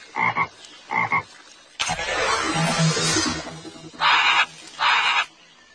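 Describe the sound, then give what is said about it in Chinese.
A frog behind a lotus leaf croaks in short, raspy bursts, two before and two after a longer stretch of rushing, hissy noise, with no one speaking. “青蛙，Right。”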